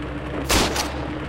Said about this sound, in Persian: زن شروع به دویدن کرد و مرد از داخل پالتو تفنگش را بیرون کشید و شروع به تیراندازی کرد